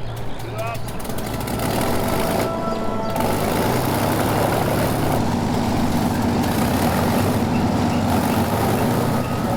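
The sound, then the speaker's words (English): C-47 Skytrain propeller planes carrying the 101st Airborne take off from Greenham Common at 10-second intervals at night: a loud, steady roar of heavy piston engines with a low throbbing hum, droning continuously without pause. “Kay Summersby said he'd tears in his eyes as he watched the planes take off at 10 second intervals.”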